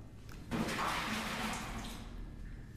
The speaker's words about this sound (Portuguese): Um dia, porém, eh, por acidente, uma senhora que fazia limpeza no passeio atirou um balde cheio de água para a rua no preciso momento em que o senhor Valéry passava.